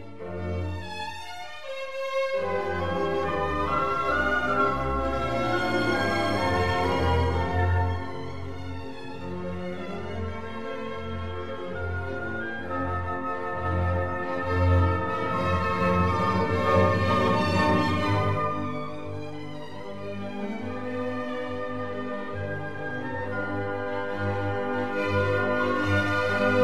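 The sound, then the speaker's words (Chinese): An orchestra plays a slow symphonic passage from the first movement of the Scottish Symphony: sustained, layered chords that swell and ease at a steady, fairly full volume, with a brief hush near the start and no voices. “就因为这样，他写出了苏格兰交响曲的第一个乐章，我们可以听一下。”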